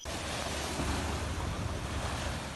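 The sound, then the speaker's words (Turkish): A strong southwest lodos wind roars steadily against the microphone at midnight in Erdek, Balıkesir, Turkey, while rough sea waves churn and crash, forming a dense, continuous wall of noise with no voices. “Balıkesir Erdek'te gece yarısında etkisini arttıran lodos zoranlar yaşattı.”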